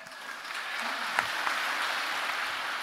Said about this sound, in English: they deserve, they deserve the applause.